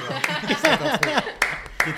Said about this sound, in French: On peut applaudir.